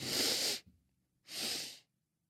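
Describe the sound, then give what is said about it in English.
Two sharp, hissy sniffs of air drawn in through the nose as part of a breathing exercise, each lasting about half a second with a brief pause between them, fairly loud with no talking. “He breathed in twice.”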